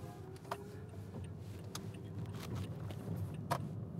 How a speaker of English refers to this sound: Right now, I'm driving up through Union City and into North Bergen and snaking my way over to Tonnelle Avenue, also known as Route 1 and 9, and um, trying to go carefully and slowly